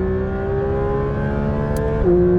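A Porsche six-cylinder supercar engine holds a steady, sustained high rev with a strong harmonic whine, then the pitch drops slightly near the end as it shifts. Loud, with no talking.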